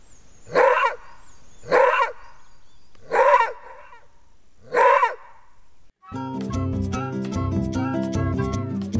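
A maned wolf barks four times, loud, each harsh bark spaced a second or more apart, before music starts and carries on to the end.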